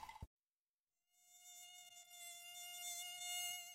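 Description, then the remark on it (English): A mosquito's thin, high-pitched whine drones steadily, growing slightly louder, after a brief thump and a moment of silence. No voices. “Mosquitoes and ticks aren't just unwanted guests at barbecues, they can also carry serious diseases.”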